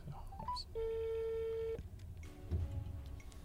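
telephone dialing tones

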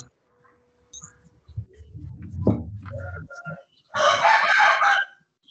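rooster crowing

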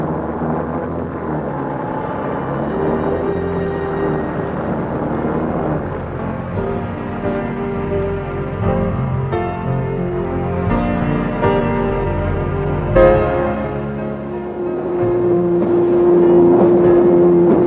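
boat motor running

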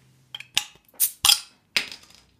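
drink bottle being opened

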